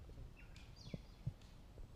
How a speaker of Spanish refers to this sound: ¿Se escuchan los pajaritos? Para la gente que está, la, gente que lo está escuchando en podcast, ¿Escucha los pajaritos? Yo creo que los pueden.